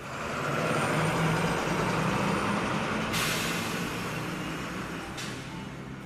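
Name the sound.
bus with air brakes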